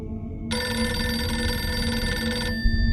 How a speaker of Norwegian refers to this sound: Telefonen i landhandleriet ringer. Det er fra Bomansvik, på andre siden av Bunnefjorden.